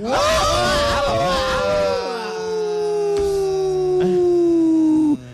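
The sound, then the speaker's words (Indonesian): A single long, drawn-out wolf howl, loud, holding one steady pitch that sinks slowly over about five seconds. A busier jumble of voices or sounds clutters the opening. “Panjang soalnya serigalanya baru digurah.”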